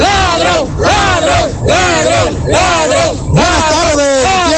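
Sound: protest crowd shouting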